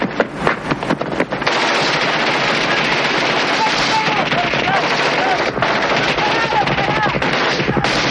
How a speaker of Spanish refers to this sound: Los dos bandos intercambian ráfagas de munición cuando dos helicópteros aparecen tras la colina y disparan un misil a los cubanos.